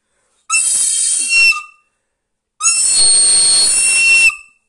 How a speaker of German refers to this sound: Also ich glaube nicht, Cheers. dass jemand den Podcast hören will, wenn du die ganze Zeit flötest, ne? Scheiße, die ist schon wieder kaputt. Die ist voll gesabbert.